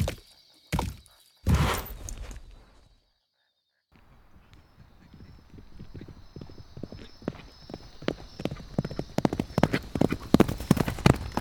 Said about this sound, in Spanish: Escuchamos el caballo del vaquero más cerca y nuestros corazones laten más fuerte. ¿Quién es ese vaquero? ¿Y por qué tenemos que escondernos? Los ruidos del caballo están más cerca.